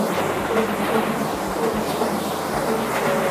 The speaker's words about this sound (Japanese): ちょっと電車が通ってます、えー、電車が通ってます